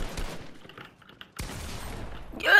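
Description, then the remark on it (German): Video game gunfire crackles in sharp bursts, with an opening volley, a brief lull, then a sudden loud salvo sustaining rapid shots that swell louder at the end. No one speaks. “Bro, er trifft halt jeden Schuss.”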